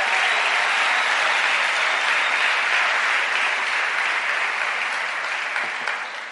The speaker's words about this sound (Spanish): Démosle ese aplauso fuerte al nombre del Señor, aleluya.